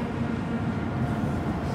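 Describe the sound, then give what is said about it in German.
A continuous, heavy low rumble of trains crossing the Hohenzollern Bridge, a railway bridge, steady and fairly loud throughout with a broad metallic roar and no voices. “Jetzt äh, hören wir die Züge auf der Hohenzollernbrücke.”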